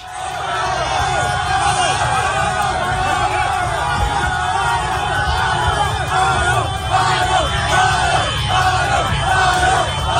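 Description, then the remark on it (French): A dense, loud crowd cheers and shouts continuously at an outdoor street celebration in Conakry, Guinea, for the return of the national football team after its Africa Cup of Nations quarter-final, with overlapping yells and whoops forming a steady roar throughout. “Et avant de parler de tout ça, on va partir euh, direction Conakry, en Guinée, où il y avait la fête aujourd'hui.”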